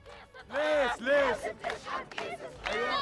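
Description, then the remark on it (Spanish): A crowd of Palestinian protesters shouting in the streets of Ramallah, demanding that the Palestinian Authority break its agreements with Israel: loud rhythmic chanted bursts rising and falling in pitch, about four strong cries over a continuous murmur of many voices. “A gritos le piden hoy desde las calles de Ramallah que rompa con los acuerdos que tiene con Israel y luche.”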